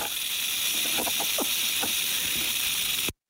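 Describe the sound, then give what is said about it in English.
A rattlesnake's dry, continuous buzzing rattle holds steady for about three seconds before cutting off abruptly, loud, with a few faint clicks underneath and no voices. “Well, that's some sort of a snake. Yes. Is it a rattlesnake? It is a rattlesnake.”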